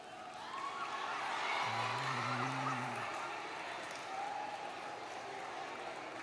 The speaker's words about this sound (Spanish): ¿Pueden darle un aplauso a Dios?